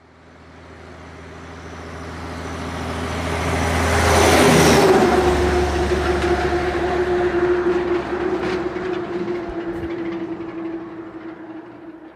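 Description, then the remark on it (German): A heavy truck rumbles, its deep engine drone swelling to a loud pass near the middle, then holds a steady growl with a faint high whine as it continues. No voices. “Ähm, es waren aber Trucks, aber hier hast du die zwei Trucks zur Auswahl.”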